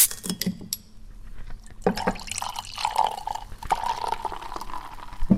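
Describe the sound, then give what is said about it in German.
Semi-sparkling wine (Perlwein) poured into a glass, a gurgling liquid stream with ringing glassy tones, followed by a steady soft fizz and tiny crackling bubbles, no voices. “Hat eine schöne Palage, obwohl es gar nicht so furchtbar viel Druck ist. Was Schaum im Glas geht nicht sofort weg.”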